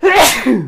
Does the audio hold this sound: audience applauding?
no